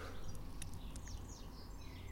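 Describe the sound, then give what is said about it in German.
A blackbird chases a small sparrow as the two tease each other, calling in a few quick, high chirps and short twittering notes over a steady low outdoor rumble. “Die Amsel jagt den kleinen Sperling da, die necken sich.”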